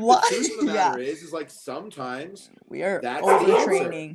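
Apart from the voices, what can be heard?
dog barking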